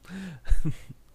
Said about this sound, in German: Kurz husten.